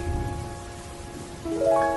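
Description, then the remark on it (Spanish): Steady rain hisses throughout, with a sustained musical drone layered on top that swells and shifts pitch near the end. No one speaks. “Todo está turbio, oscuro, llueve.”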